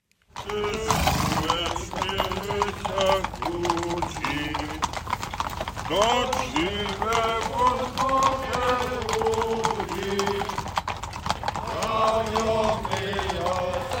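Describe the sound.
Many horses' hooves clatter steadily on a hard surface in a dense, continuous clip-clop, with a horse whinnying and a group of voices singing loudly over the procession.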